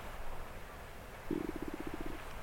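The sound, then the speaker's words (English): A low, gurgling stomach rumble rolls in partway through, a quick series of soft bubbling pulses that fade out, fairly quiet against a faint background hiss. “That's my stomach rumbling.”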